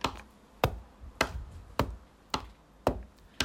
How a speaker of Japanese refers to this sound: これはねラジオネームヤミーさんが送ってくれた印鑑を押す音これ印鑑押しまくってんですよねこれあの録音してる風景を思い浮かべると笑えるっていうか笑えるっていうかちょっと怖いっていうね